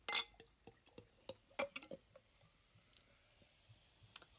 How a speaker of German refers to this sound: bei mir hört man nichts mehr, weil der, ähm, der Hals der Flasche schon im Bier versenkt ist, wie man eben so einen Weizen eingießt. Oh. So, jetzt kommt der Schaum.